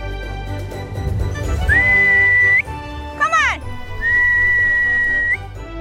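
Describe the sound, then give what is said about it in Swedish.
A former national-team equestrian rider whistles two long, steady high notes separated by a quick rising-and-falling trill, clear, over a low background rumble, at her parents' farm outside Norrtälje. “Eh, vem är det vi visslar på här?”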